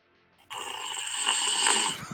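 A toddler snores close by, one long, raspy inhaled snore that starts suddenly after a brief quiet moment and rumbles steadily before fading, with no talking.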